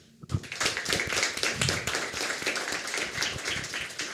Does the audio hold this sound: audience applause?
yes